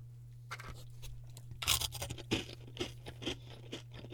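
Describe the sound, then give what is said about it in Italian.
Loud crunching of small hard spicy taralli snacks, a run of irregular bites and chews packed into a few seconds, with a steady low hum underneath and no talking. “Comincio a sgranocchiarli nel modo più rumoroso possibile per dargli fastidio, visto che il simpaticone sembra essere diventato improvvisamente iperacusico,”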